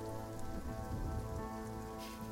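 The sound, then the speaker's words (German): Steady rain falls outdoors in Blutstadt, a dense continuous patter of drops on a hard surface at moderate, even loudness, with no voices present. “Ich gehe mal, geh mal davon aus, dass es draußen regnet, wie immer in Blutstadt.”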